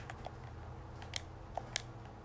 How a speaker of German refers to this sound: Ich bin gerade durch Wasser gegangen. Aber es ist keine Melodie. Ich höre nichts mehr außer unsere Schritte.